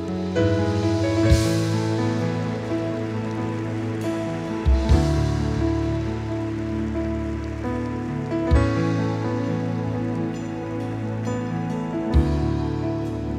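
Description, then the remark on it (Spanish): A large crowd claps loudly and steadily for over ten seconds, a dense wash of applause with sustained keyboard chords ringing underneath and no one speaking. “Sí, dale un fuerte aplauso.”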